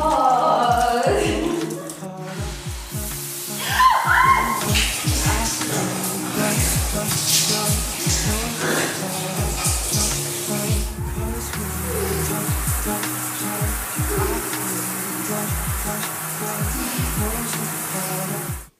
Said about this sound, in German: Dummerweise lief sie das Wasser ja auch, so laut.